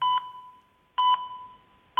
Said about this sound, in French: Il se consulte par téléphone. Et quand on appelle, ça donne ceci.